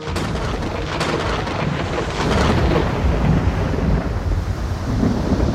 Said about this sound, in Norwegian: Det bles nemlig opp til orkan.